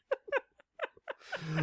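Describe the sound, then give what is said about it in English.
A sneeze: a run of short, halting gasps builds up, then breaks into a loud, breathy burst at the very end. No one talks. “oh, bless you.”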